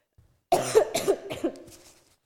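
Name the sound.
cough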